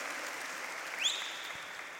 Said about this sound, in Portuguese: Glória a Deus, pode dar umas grandes salvas de palmas.